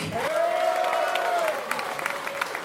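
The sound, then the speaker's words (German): Concert audience at a gig applauding the evening's bass player from Poland, a dense patter of many hands clapping, with a long steady whoop from the crowd held over the first half before the clapping carries on alone. “So bitte ein schöner Applaus an der Bass heute Abend von Poland.”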